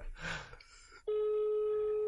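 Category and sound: signal or alarm, phone call tone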